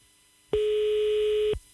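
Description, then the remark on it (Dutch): A loud, steady telephone busy tone sounds once for about a second and then cuts off abruptly on a failed phone call that nobody answers, with no voices. “het schiet niet heel erg op vandaag met die telefoon.”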